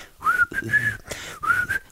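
A rock song's melody is whistled in a few short, smooth phrases, the clear pure tone gliding gently around one steady pitch, with nothing else beneath it.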